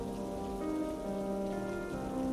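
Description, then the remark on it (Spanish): Heavy rain pours down steadily, a dense continuous patter drumming on a surface, with no voices present. “El viento le movía la ropa de una manera muy extraña, pues eso era imposible, ya que estaba lloviendo demasiado fuerte, y la ropa mojada jamás se movería ni se levantaría así por más holgada que fuera.”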